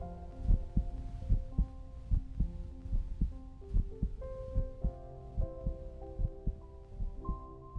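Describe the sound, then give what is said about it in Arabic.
A steady, regular heartbeat thumps in deep low pulses over a continuous whooshing hum of blood flowing in the veins, heard by John Cage inside an isolated, soundproofed room. No voices, and the beats stay even and fairly quiet throughout. “تمكن جون كيج انه يسمع صوت في الغرفة المعزولة كان الصوت هو صوت جريان دمه في عروقه ونبضات قلبه”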